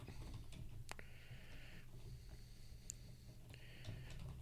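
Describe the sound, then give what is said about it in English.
Soft, irregular clicks of someone typing on a computer keyboard, fairly quiet, with a steady low hum underneath and no talking. “fill in the show while I'm yes. typing.”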